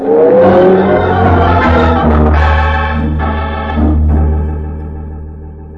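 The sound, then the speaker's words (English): A car engine revs loudly with a deep rumble and rising whine, then settles into a steady drone that eases off slightly as it pulls away. No voices are heard. “And if you want to keep your arm, get it off of my car.”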